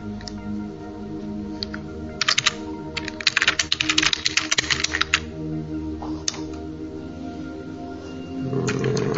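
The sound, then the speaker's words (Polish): Typing a message on a computer keyboard: a quick run of clicking keystrokes in the middle, with a few scattered taps before and after, over a steady low background hum. “Będzie chwilę ciszy, tylko klikanie.”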